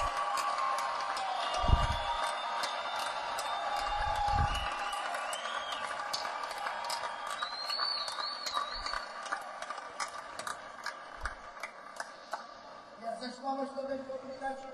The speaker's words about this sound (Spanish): muchas palmas.